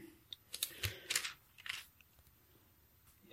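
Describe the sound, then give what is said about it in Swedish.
Pages of a Bible are leafed through while looking for First Thessalonians chapter 5: a few quick, papery rustles and flicks in the first two seconds, then quiet. No one speaks. “Nu var jag bläddrade i andra.”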